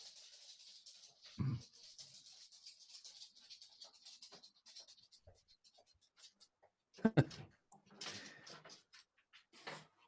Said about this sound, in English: going to pause right there because my dog is scratching at the door.